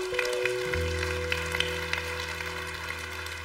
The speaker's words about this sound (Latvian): Ja vienas durvis aizvērās, jā, šī bija īstā vieta, dod Dievam aplausu.